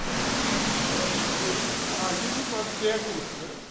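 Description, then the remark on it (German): A loud, steady roar of groundwater shooting forcefully from many pipes onto metal plates in the aeration chamber of the Elze Berghof waterworks near Hannover, the first treatment step toward drinking water, continuing without a break, with faint talking underneath. “Aus ihnen schießt mit Wucht das Grundwasser lautstark auf Metallplatten.”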